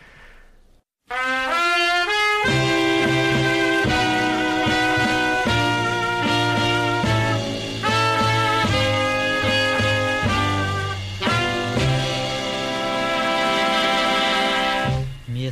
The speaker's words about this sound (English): crooner indeed, uh, … with singing